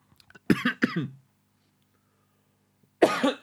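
Harsh coughing of a person who has choked on something: two quick hacking coughs, a pause of near silence, then another loud burst of coughs.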